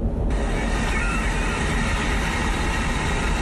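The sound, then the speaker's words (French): Soft lapping waves play from a car's built-in audio system as part of the car's sound library, a steady, even wash of water noise filling the cabin at moderate volume without a break. “Franchement, est-ce que vous avez souvent vu une voiture qui vous propose sur son autoradio le clapotis des vagues Et eh ben voilà, ça, ça fait partie de la bibliothèque sonore de cette voiture, de la discothèque de cette voiture”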